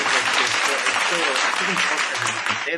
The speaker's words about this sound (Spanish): Y un aplauso, va, va.